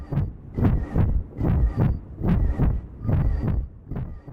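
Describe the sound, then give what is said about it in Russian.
A deep, muffled heartbeat thumps steadily, with about eight regular beats over a few seconds, each a soft low pulse with a faint whooshing undertone, with no voices. “Человек в такой камере довольно быстро начинает слышать звук своего сердца и течение крови по кровеносным сосудам.”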